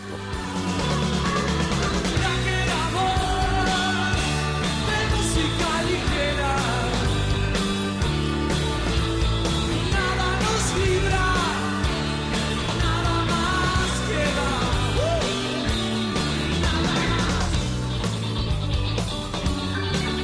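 An upbeat, danceable pop song plays continuously at a steady, full volume, with a driving beat and layered instruments, and no talking over it.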